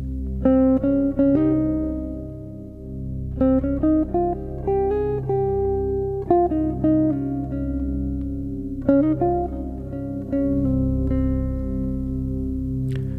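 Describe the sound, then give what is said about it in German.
A Phrygian-mode scale (1, b2, b3, 4, 5, b6, b7, up to the octave 8) played on a sustained, slightly electronic-sounding instrument over a low drone, in several short runs of notes, with no talking. “So, und merkst du, ich sage erstmal die Intervalle 1, B2, B3, 4, 5, B6, B7 und 8.”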